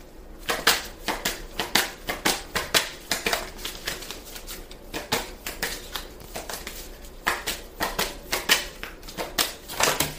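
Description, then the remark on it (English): Tarot cards being shuffled and dealt for a Libra reading for the month of July: a steady run of crisp, papery clicks and flutters, some sharper snaps standing out, going on for about ten seconds with no talking. “Whoa, too many cards.”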